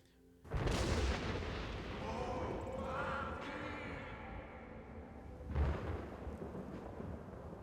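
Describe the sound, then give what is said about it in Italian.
A deep, booming chorus of voices calls out in unison as if from the sky over a heavy thunder-like rumbling, with two loud blasts marking the start and a later swell, filling the whole clip. “Con, eh, sì, appunto un, eh, un eh, sottofondo di tuono, è come appunto se le loro voci fossero un tuono”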